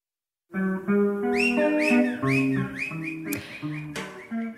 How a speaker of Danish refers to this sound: Og det er øh, et øh, afrikansk big band fra omkring øh, 1980. Der var der altså en masse øh, lokale varianter, af, som var inspireret af kubansk musik. Ja. Og det her var rigtig stort.